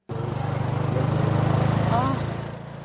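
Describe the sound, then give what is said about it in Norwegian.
A motorcycle engine chugs with a steady, low rumble that swells, then eases off and fades slightly as the bike pulls away, heading to the County Governor's office. Faint voices may be mixed in underneath. “De kaster seg på motorsykkelen og drar til Fylkesmannen for å få fasiten.”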